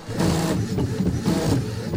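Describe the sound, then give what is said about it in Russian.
A food printer prints chocolate figures, working steadily and giving off a loud mechanical whirring hum with a faint rhythmic pulse roughly twice a second, heard alone, with no talking. “Ну тогда хотя бы шоколадку, Вертелкин, принтер напечатать может?”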